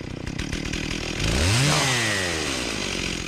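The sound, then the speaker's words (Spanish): A person imitates a chainsaw using only whistling: a steady buzzing drone that swells into loud rising and falling revving tones midway, then settles back, continuous. “mira, yo ahora, te imito una motosierra, pero con puro silbido.”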